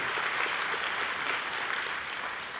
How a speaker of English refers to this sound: but when it comes to honoring those who serve and protect us by risking their own lives, I think it's appropriate that this is the loudest applause of appreciation. Come on, real loud, real proud. Come on, thank you. Thank you for serving.